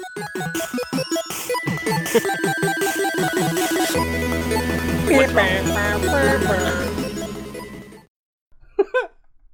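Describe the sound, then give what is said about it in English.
A crude, buzzy 8-bit sound effect: clashing electronic tones and jittery chirps pile up loudly for about eight seconds, cut out, then two quick high blips follow. “No, it's like a Chinese knockoff version of the sound effect.”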